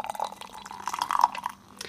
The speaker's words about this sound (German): Ist auch ein schönes Einschenkgeräusch.